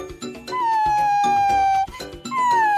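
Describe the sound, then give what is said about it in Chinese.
A dog whines and howls in two long, high, slowly falling cries, the first drawn out for over a second, the second starting just after a short break. “好了好了，别哭了，去找你的猫女王吧，你会后悔的。”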